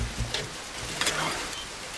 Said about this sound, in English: The thunder and rain are more than enough to keep you on edge.